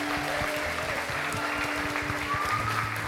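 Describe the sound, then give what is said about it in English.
A round of applause from a crowd for the shepherds, dense, steady clapping that holds at an even level throughout, with a faint low hum running underneath. “We give a round of applause for our shepherds.”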